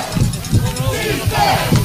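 A stadium crowd at a football game in St. Leon, on its feet on a third down and six, roars out a rhythmic defense chant, many voices rising and falling in steady pulses, loud and continuous throughout.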